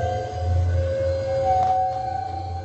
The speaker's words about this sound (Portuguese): é o som de você esfregar um arco de violino Num contra prego. um prego pregado numa madeira. Vários pregos de tamanhos diferentes. É horrível, horroroso esse som.